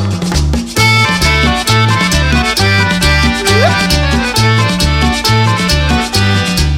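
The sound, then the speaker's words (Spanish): An accordion plays a lively, continuous melody over a steady, bouncing bass rhythm. The music is loud, with no voices. “Y ahora viene el acordeón.”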